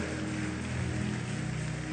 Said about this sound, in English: Give them a big, big hand clap as they come. Let's encourage them.